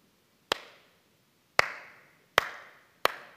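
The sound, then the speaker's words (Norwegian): Four sharp, isolated hand claps at uneven intervals from an audience in a hall, each ringing briefly, like a hesitant, scattered start to applause. No one speaks. “Og så begynte de å klappe, og så klappte det, og så ble det god gang på den klappinga der.”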